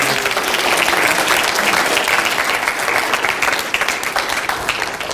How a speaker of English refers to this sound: Amen. Give them a big round of applause. We appreciate them.